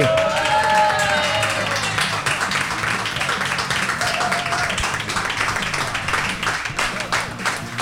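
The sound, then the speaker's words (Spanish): Sustained audience applause, a dense wash of many hands clapping steadily for several seconds, with a few cheers and whistles rising over it at the start. “Bueno, en todo caso, lo que sí que podéis hacer es escucharlos porque nos van a regalar otro aplauso. Venga, aplaudí.”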